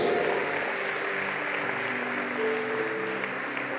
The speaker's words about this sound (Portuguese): Aplauda esse Deus maravilhoso em nome de Jesus.